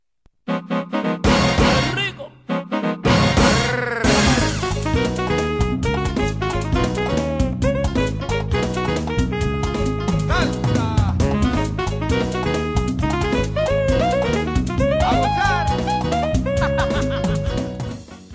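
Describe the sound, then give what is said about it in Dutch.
Quirky video game battle music plays loud, a busy bouncing melody over a steady rhythm, starting with a brief stutter before running continuously to the end with no talking. “Ze hebben nu gewoon het muziekje gehoord.”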